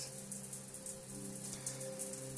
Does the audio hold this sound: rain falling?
yes